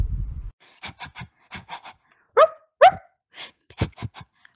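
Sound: dog panting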